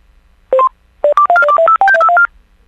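Telephone keypad dialing tones as a collect call is dialed again: two quick beeps, a pause, then a rapid run of about eleven steady, bright electronic tones at varying pitches, clear and loud with no talking.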